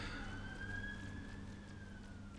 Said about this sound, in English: He spotted at least two police cars screaming past the front window of the building.